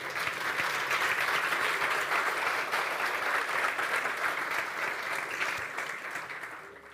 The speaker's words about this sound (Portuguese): Você pode dar uma salva de palmas no nome do Senhor?